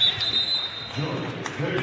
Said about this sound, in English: Whistle and a timeout.